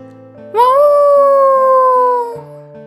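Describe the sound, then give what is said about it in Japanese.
A wolf lets out one long, drawn-out howl in the distance that rises quickly and then slowly sinks over about two seconds, heard over soft, steady background music. “遠くから狼の遠吠えが聞こえてきたのです。”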